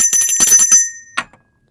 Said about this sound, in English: Where's my bell?